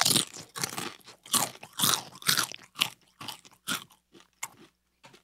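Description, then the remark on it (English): Loud, crisp crunching of chips being chewed, about a dozen sharp bursts in an uneven rhythm that tapers into softer bites toward the end, with no talking. “how are the chips? Pretty good.”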